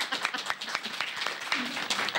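A burst of applause for a woman being introduced, many hands clapping in a dense, steady crackle for a couple of seconds, with a faint voice briefly audible underneath.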